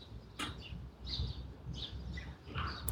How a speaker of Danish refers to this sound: Og det er en dejlig morgen. En morgen med skyfri himmel fuglesang og god energi eller god stemning eller